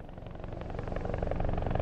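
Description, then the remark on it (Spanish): A helicopter drones steadily, its low rotor chop pulsing beneath a broad mechanical roar that grows slightly louder over the short stretch, with no voices. “Primero fue el helicóptero, el helicóptero, el helicóptero.”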